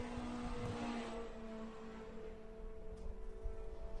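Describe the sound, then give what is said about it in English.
Race cars drone steadily along a race track as the race leader goes through the dog legs with traffic ahead, a sustained engine hum with a slight swell and rough rasp partway through, with no voices. “Your race leader now is going through the dog legs, got a little bit of traffic in front of him”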